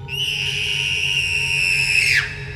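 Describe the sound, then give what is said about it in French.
A long, piercing, high-pitched scream of terror in the dark of a house holds steady for about two seconds, then drops sharply in pitch and cuts off, leaving a low rumbling background. “un hurlement de terreur déchire l'obscurité avant de s'éteindre dans un silence béant.”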